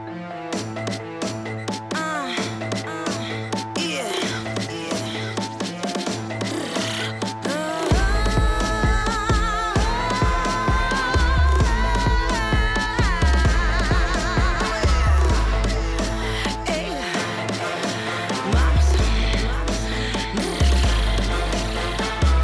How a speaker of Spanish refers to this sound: Latin Dance Hall, Afro Trap.